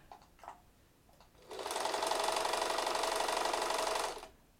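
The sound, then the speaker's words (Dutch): A sewing machine whirs steadily for about two and a half seconds, winding a skein of yarn hung on a hook mounted on its handwheel, a loud mechanical buzz that starts and stops abruptly, preceded by a few faint clicks. “Ja, en dan eh, wat ik zie, hè, voor mensen die dat niet kunnen zien, is inderdaad een naaimachine.”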